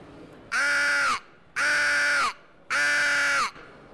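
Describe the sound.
Three loud, raspy adult crow caws blown on a crow lure, each lasting under a second and evenly spaced, harsh and fairly low-pitched, with no talking over them.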